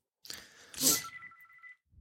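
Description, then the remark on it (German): A phone rings with a brief bright burst, then a steady high electronic tone holds for about a second before cutting off, standing alone without any talking. “Dann klingelt es bei dir. Das ist nicht meins.”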